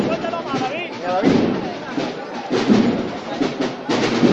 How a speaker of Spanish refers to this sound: Un poquito más sonido de tambor de la banda de cornetas y tambores de la expiración de Quesada, que acompaña a esta joven cofradía desde que hiciera su primera estación de penitencia.